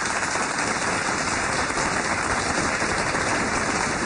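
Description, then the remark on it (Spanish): Steady, dense applause sent back in return to a listener in Canada, many hands clapping continuously at an even level for the full few seconds, with no voices standing out. “Y nos manda, nos manda unos aplausitos que nosotros también se lo respondemos de vuelta a nuestro querido oyente en Canadá.”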